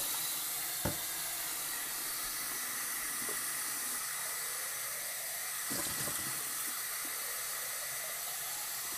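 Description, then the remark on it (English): Tap water runs steadily into a sink, filling dishes left to sit with water, a continuous hissing splash with a few clinks of dishes being set down around it. No one speaks. “Okay, I'm just gonna leave a couple things sitting with water.”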